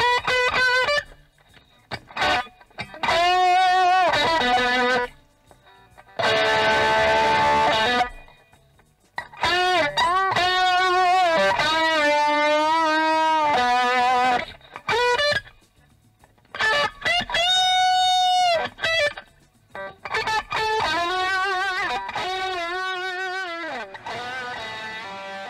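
Sustained, singing electric guitar notes with heavy effects and distortion, bending and gliding through a slow melodic phrase in loud bursts separated by short pauses, with no voices.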